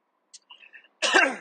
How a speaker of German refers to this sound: So, jetzt habe ich dir ins Ohr gehustet. Wahrscheinlich nicht so erfreulich.